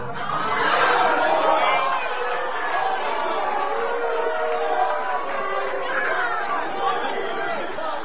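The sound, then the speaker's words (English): A large crowd of workers at a facility in Indianapolis talks and shouts over one another during an announcement that their jobs are being cut and production moved to Monterrey, Mexico, in a continuous, loud babble, with raised voices rising above the steady din throughout. “If we could go ahead, if you don't want to hear it, other people do. So let's quiet down.”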